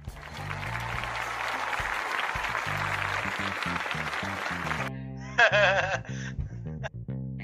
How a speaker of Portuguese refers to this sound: Nossa, a população clama para que o Pode Crer não acabe. Aplaudem.